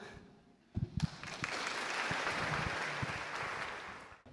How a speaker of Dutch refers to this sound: Precies, dat applaus is er om eh, eh, te zeggen dat wij heel graag jullie hebben gesteund.